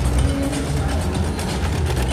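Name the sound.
sewing machine running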